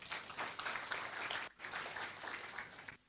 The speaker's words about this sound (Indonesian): Ada Yesus. Tepuk tangan buat Tuhan.